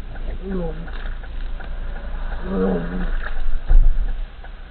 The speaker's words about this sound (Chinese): 十九时零二分，行车记录仪显示。司机将车停在路边后下了车，随后就传来了一阵呕吐的声音。